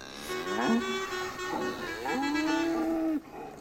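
A cow moos loudly in a few long, low, drawn-out calls, the last one steady and sustained before cutting off abruptly, with no talking.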